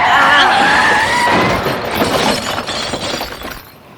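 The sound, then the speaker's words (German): A car called the Dragon, running on out of control at the end of a tunnel, smashes through the wall toward the sea in a loud, sustained crash, with shattering glass and crumbling debris roaring for several seconds before quickly falling quiet. “Wir krachen gegen die Wand zum Meer.”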